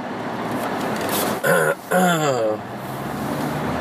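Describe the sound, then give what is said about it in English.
Cars driving out of a cramped spot with little room to get in and out create a steady rushing hum throughout, broken midway by two short, throaty vocal sounds like someone clearing their throat. “So you gotta let these cars go by.”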